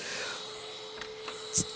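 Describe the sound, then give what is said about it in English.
A voice imitates a vacuum cleaner with a steady, breathy whooshing drone held for under two seconds, ending with a brief sharp burst. “She gets out the vacuum and she's like going,”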